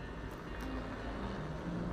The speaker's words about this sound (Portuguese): É provável que desça em algum prédio aqui perto. É provável que desça. O som aumentava, encobrindo seu sono e sua voz. Era mais um dia, mais um dia que amanhecia. Olhando para o teto enquanto escutava aquele helicóptero pousar,